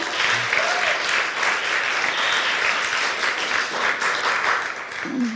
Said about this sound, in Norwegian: Ja, det er en klapp for den.